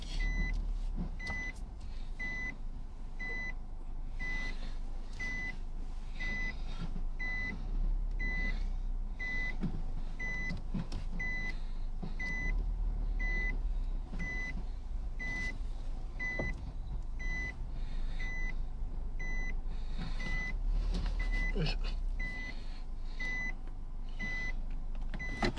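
Steady reversing beeps repeat at an even pace over a continuous low rumble of idling and moving vehicles in a busy Seven-Eleven convenience store parking lot, with faint clunks and road noise throughout.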